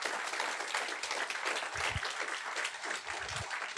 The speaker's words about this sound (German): Geben wir Jesus einen Applaus.